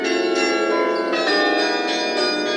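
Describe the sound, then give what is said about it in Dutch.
Carillon bells of the Westertoren church tower in Amsterdam ring out a melody, dense overlapping metallic tones with long ringing sustain and new notes struck every fraction of a second, loud and continuous with no voices. “… op de Westertoren.”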